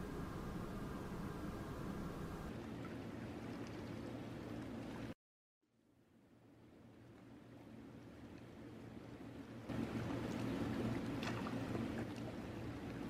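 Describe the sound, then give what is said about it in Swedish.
A steady, droning hum of dehumidifiers in corridors, with a wet, gurgling texture, cuts out abruptly midway, then swells back in and grows slightly louder. No one speaks. “Jag hör det här eh, porlande ljudet, de blöta ljuden ifrån lyfta av fuktarna där inne i korridorerna.”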